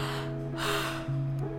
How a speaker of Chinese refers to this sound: 啊，打哈欠了。